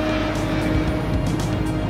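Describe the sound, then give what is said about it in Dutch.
Steady, loud engine roar of airplanes taking off and landing at Brussels Airport in Zaventem, a continuous low rumble with a droning hum that holds even throughout. “Met zicht op de luchthaven van Zaventem en de vliegtuigen die hier opstijgen en landen.”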